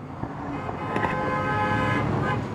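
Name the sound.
cars honking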